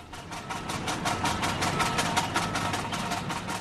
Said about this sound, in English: Here, a backhoe makes its way up Wolf Creek. The machine's shovel scrapes the stained banks into the water.